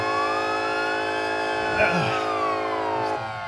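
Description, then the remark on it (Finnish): A police siren wails steadily, its tone sweeping slowly up and down over a dense, sustained hum; a brief muffled bump breaks in midway, and the siren sounds loud throughout. “Tää vaan sireenit soi.”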